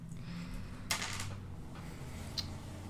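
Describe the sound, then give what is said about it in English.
A short, light clatter of borrowed dice tumbling across a table to roll 2d4 plus 2 for a potion of healing, followed a moment later by a single small click, over a low background hum. “I borrow some dice.”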